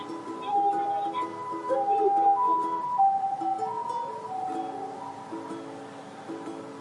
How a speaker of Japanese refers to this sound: 救急車ですね。ちょっと通るかな。避けとかなあかんね。